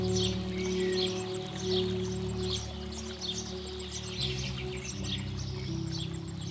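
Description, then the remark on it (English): Many birds chirp and twitter continuously in the distance, layered over a steady low rushing rumble of wind blowing around mountain peaks, with no one speaking. “Listen to the gentle whisper of the wind as it dances around the mountain peaks, carrying with it the echo of distant bird songs.”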